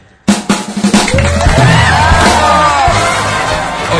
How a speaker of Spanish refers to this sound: Gracias, mundo. Este aplauso quisiera que te concentres en escucharlo y sobre todo en sentirlo. Es para ti.